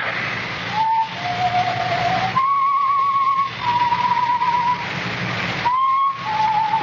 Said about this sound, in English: Maybe I heard it in my dream. Maybe not heard that whistling again. That same tune. I think that's what woke me.